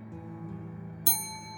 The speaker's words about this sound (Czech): Ozvalo se cinknutí malého hotelového zvonku a na recepci nervózně přešlápl mladý muž.